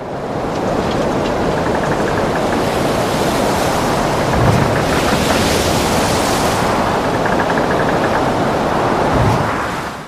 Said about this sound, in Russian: Так и шла его жизнь на борту Растепы, когда вдруг однажды на море разразилась страшная буря.